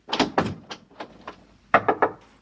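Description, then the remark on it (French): A toilet door being opened, with a series of sharp wooden knocks and rattles: a few strong clacks, softer taps, then a quick burst of three near the end, fairly loud. “La curiosité du romancier s'arrête à la porte des toilettes”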